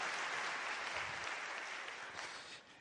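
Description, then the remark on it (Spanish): Sustained applause from a crowd welcoming first-time guests at a meeting, a dense crackle of many hands clapping at a steady loudness that begins to thin out near the end. “También un aplauso para ustedes, bienvenidos, qué bueno que están acá.”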